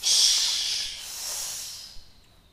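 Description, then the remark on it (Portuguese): A voice imitates rain with a steady, breathy "shhh" hiss lasting a couple of seconds, loudest at the start and slowly fading, heard alone. “Como é que é o som da chuva?”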